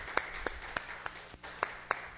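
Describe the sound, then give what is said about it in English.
Hand clapping from an audience for the Lord after a prayer, about eight sharp claps on a steady, even beat over a quiet background, with no one talking. “Let's give Lord a hand clap.”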